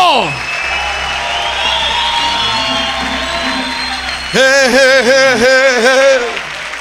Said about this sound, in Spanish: Un aplauso a Jehová fuerte, aleluya. No se oye el aplauso.